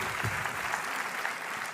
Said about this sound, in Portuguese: Dê para Jesus uma forte salva de palmas, em nome de Jesus. Aleluia.